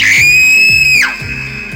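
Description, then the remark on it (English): A loud, high-pitched scream of fright held for about a second, then trailing into a slightly lower sustained wail, over a faint rhythmic low thumping in the background. “Those spiders know that all they have to do is show up and Many of us are running away screaming like it's a slasher movie.”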